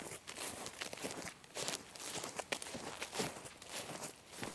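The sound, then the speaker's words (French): Steady footsteps crunch over rough, gravelly ground outdoors on a plateau as a person walks with water canteens in hand to fetch water from a spring, a continuous walking rhythm with no voices. “Mes gourdes à la main, j'avance toujours plus loin sur le plateau.”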